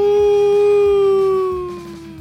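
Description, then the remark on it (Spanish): A person imitates a wolf howl during a break from watching the Kansas City Chiefs play the San Francisco 49ers, a single long, sustained vocal note that slowly falls in pitch, loud, with a low rhythmic rumble underneath before it fades near the end. “el lobo de Converes. ¡Au!”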